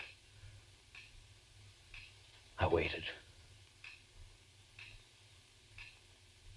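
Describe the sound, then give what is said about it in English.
A clock ticks softly and steadily, about once per second, in a quiet room; a man speaks two words briefly partway through. “The tick, tick, tick of the clock”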